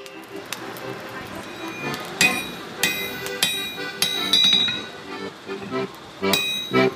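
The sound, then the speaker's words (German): A blacksmith hammers metal at a forge next to the old inn in the mountaineering village of Innerfelgraten, with about a dozen sharp, ringing strikes in an uneven rhythm, each leaving a bright metallic tone over a low background rumble. “Neben dem alten Gasthof wartet die Schmiedeesse”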